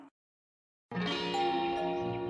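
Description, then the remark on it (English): After a short silence, a doorbell ding-dong chime rings out loud, its layered bell tones sustaining and ringing on without fading. “Oh, great. You have a doorbell camera.”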